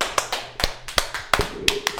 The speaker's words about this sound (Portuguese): Cara, vamos dar uma salva de palmas